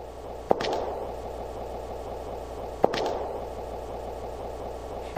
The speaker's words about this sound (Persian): صدای قدمهایش را نمیشنوید؟